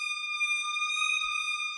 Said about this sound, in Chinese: 这个时候，他听见公路上响起了警笛的声音，还有红蓝两色的灯在闪烁。